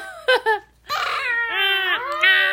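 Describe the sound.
A person telling a children's story imitates an elephant's trumpeting: two short, sharp vocal blasts, then a long, wavering, high-pitched wail that rises and falls, loud and alone with no talking.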